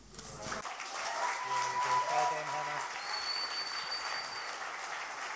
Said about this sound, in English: Why don't we keep that applause going